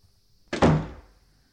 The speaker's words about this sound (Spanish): No, espera, te cuento la verdad, pero antes cierra la puerta. ¡Cierra!